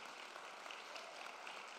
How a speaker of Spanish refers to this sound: Vamos, alguien que no entienda, que le dé un aplauso fuerte al Señor.